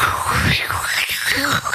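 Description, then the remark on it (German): A voice imitates wind blowing as a sound effect while another person reads aloud, with a steady, breathy whooshing hiss that rises and falls in gentle swells for under two seconds, fairly loud, with no words spoken. “Also, ich mache ja, die Geräusche, du der, liest. Der Wind bläst.”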